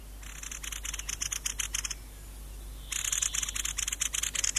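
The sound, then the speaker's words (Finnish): Mistle thrush song in a dry pine forest: two bursts of dry, rapid, rattling pulses with a high thin tone, broken by a short pause. The bird is clear, with no voices. “Viikon luontoääni: Kulorastas”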